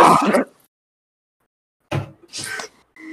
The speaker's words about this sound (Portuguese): Parece que ela meteu o pé na porta. Assim. Não tô zoando.